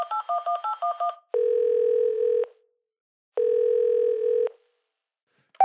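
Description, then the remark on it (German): A quick burst of touch-tone dialing beeps as a radio host phones a contestant, then two long, steady ringback tones on the phone line separated by a pause, ending with a brief click as the call connects. “Also, es klingelt.”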